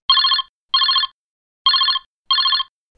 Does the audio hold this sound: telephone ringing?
yes